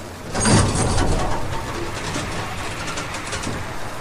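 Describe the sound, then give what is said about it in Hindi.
A door creaks open, starting with a louder scrape and trailing into a drawn-out groaning creak over a steady hiss of background noise, with no one speaking. “दरवाज़ा खुल गया”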